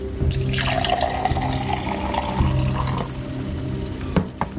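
Water is poured steadily into a glass for several seconds, a continuous splashing trickle that ends with a couple of small drips and a light clink.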